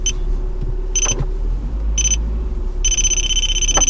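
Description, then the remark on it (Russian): A broken car parking sensor beeps, three short high-pitched tones about a second apart, then switches to a steady continuous shrill tone, over a low constant rumble with no talking. “Парктроник, знаете, он так э, обычно должен звучать, визжать при подъезде к препятствию.”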